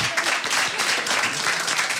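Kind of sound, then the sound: crowd, applause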